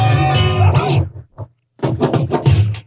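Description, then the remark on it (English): A loud, brassy horn stab rings out, then after a brief pause a simple, punchy drum beat kicks in with crisp, evenly spaced hits: a short breakdown passage of a record where everything drops out but the drums and horn stabs. “what would be left would be like the drums and maybe horn stabs, little teeny bits of the record, and we're talking about usually about eight to ten second passages of the records where they would break down and sound like this.”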